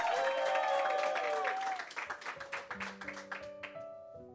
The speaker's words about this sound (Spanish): Si tú lo crees, dale un aplauso fuerte. Vamos, dale un grito de victoria.